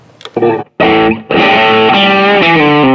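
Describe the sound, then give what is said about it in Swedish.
Electric guitar played through a One Control Strawberry Red overdrive pedal, used for more gain: a few short gritty notes and then loud sustained distorted chords ringing out with thick, buzzing harmonics. “sen sist eh, av uh, Odar så ligger en uh, One Control Strawberry Red.”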